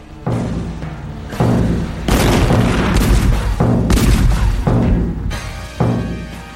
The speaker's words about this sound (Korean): 먼저 거북선으로 하여금 돌격해 들어가서 천자 총통과 지자 총통 등 대포를 쏘아서 적의 큰 배에 구멍을 내었다. 그러고 나서 여러 전선들이 번갈아 드나들면서 화살과 대포를 쏘아대기를 마치 폭풍이 불고 천둥이 치는 듯하였다.